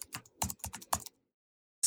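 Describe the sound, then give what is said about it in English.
Rapid clicking of keys on a laptop keyboard, a quick burst of about eight taps in the first second, then a pause before one more sharp press. No voices. “Even the Mac laptop keyboards are unbearable”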